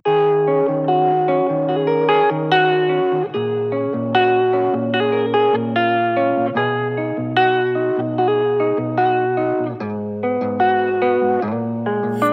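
A hip-hop track plays with dense sustained harmonic layers and a steady low bass line, the vocals heavily processed with effects, loud and continuous throughout.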